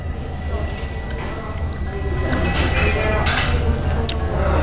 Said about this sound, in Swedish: Nu ska jag ta första tuggan. Jag beställde mer än medium stekt. Jag vill inte ha det blodigt. Okej, okay, vi kör.